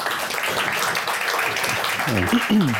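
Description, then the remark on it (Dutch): An audience at the Plein Publiek program claps steadily in a dense, even wash of applause welcoming essayist Thijs Goldschmidt; near the end a voice starts talking over the clapping. “Een applaus alvast voor Thijs Goldschmidt.”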